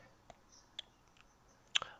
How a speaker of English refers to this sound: Did you just drink a water?